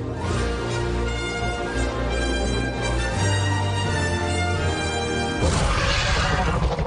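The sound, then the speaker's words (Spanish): A loud, sustained dinosaur roar from the film Jurassic Park, a deep rumbling growl layered with harsh screeching tones, swelling into a second rough burst near the end, with no voices. “Uy, no, no, no, pero este animalucho sí. está está buena como para, despertarse uno por la mañana, ¿no?”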